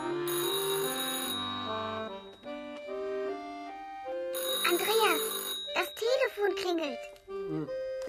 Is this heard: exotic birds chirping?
no